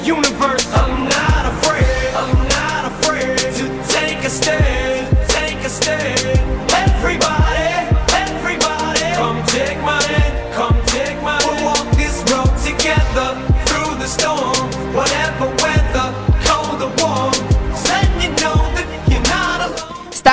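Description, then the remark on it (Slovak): A rap track plays loud and steady throughout, driven by punchy, regular drum hits under a dense layer of bass and melodic backing, with no pauses. “Začali sme repom”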